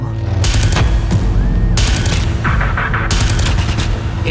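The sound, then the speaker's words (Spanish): Loud, rapid bursts of automatic gunfire crackle in several volleys, with sharp repeated cracks over a dense rumbling background and faint voices mixed in. “Gritos ahogados por la metralla del verdugo.”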